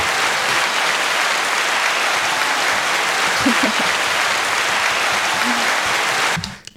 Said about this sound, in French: Faut s'imaginer, hop, petit applaudissement. j'arrive, sur la scène.